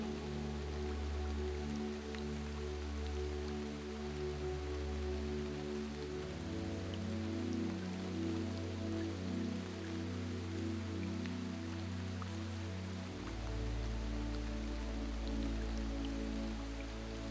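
Steady rain patters continuously on a surface, an even wash of drops with no break, while a soft low drone hums underneath and shifts pitch a couple of times.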